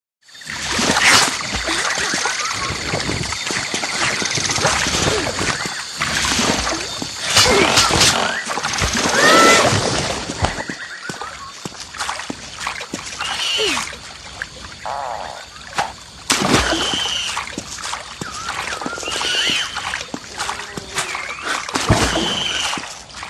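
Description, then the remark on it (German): Dense swamp ambience from the second level of a cinematic platformer video game, with no music: sloshing, splashing steps as the character swings on vines and wades through water among snapping enemies, over a steady wash of croaks and creature calls, fairly loud and continuous, with no one talking. “sich an Lianen schwingt und in Wasser wartend durch ein Gebiet voller nach ihm schnappender Feinde wagt.”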